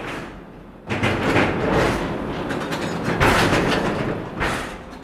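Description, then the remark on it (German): A mine rail car, benches on a transport platform, runs through a mine gallery at a few km/h: a loud, continuous metallic rattle with heavy thuds and bursts of screeching noise, echoing in the tunnel. No one speaks. “das sind im Prinzip Bänke auf einer Transportplattform, wenn wir es mal einfach erklären, die durch den Stollen fährt.”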